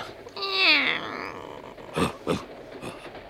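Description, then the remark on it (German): A cat inside a travel basket gives one drawn-out, falling meow, followed by a few soft rustling bumps as it shifts around in the basket. “Ich kann sie hören. Hier ist ein Guckloch. Ich kann sie sogar sehen. Die Schnurrbartspitzen pieken wie weiße Nadeln.”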